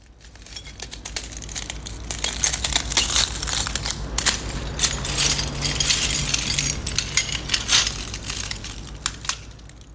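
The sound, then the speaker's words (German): Broken glass shards in Beirut, the night after the explosion, crunch and scrape continuously, with bright clinking and crackling bursts throughout, fairly loud, as if being stepped on or swept; no voices. “Äh, das waren Glasscherben.”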